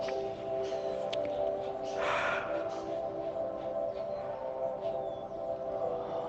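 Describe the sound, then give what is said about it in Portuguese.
A single slow, airy breath taken during meditation rises over a steady, humming tonal drone that sustains throughout, with no talking. “Que neste momento possamos estar respirando.”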